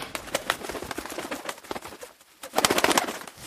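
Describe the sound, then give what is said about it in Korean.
An injured crow with dried blood on its leg calls repeatedly in short, rough bursts, with a brief lull in the middle before a busier flurry of sound; no one speaks. “새 한 마리 때문에 119가 출동하는 건 아니지.”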